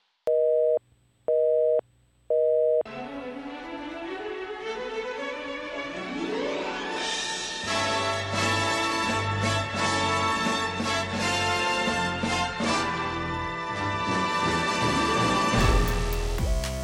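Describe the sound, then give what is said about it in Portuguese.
A short musical jingle opens with three beeping tones like a phone busy signal, then swells into a loud, full instrumental sting with a rising sweep. No one speaks. “Então pode soltar a vinheta.”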